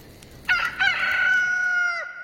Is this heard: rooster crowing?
yes